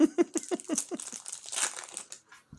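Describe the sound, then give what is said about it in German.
A chips bag crinkles in a quick flurry of sharp, irregular crackles for a couple of seconds, fairly loud and alone, then trails off to near silence. “Chips essen oder was?”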